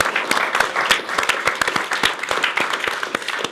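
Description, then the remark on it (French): The audience of a TVL television programme bursts into steady applause for itself, many hands clapping in a dense, sustained patter of sharp claps that stays loud and even throughout, with no talking over it. “On peut aussi vous applaudir, parce que c'est grâce à vous”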